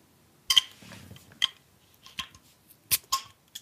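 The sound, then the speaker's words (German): A classic longneck beer bottle of a Wet Hop Pale Ale called Frischer Traum being opened: a few sharp metallic clicks and clinks of the cap coming off, with only a very faint, brief hiss, and no talking. “Oh, ganz wenig, ganz, ganz wenig zischen.”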